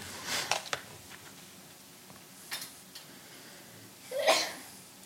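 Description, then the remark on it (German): A sneeze bursts out near the end, sharp and breathy, after a couple of softer short puffs of breath earlier on. No one speaks. “Gesundheit.”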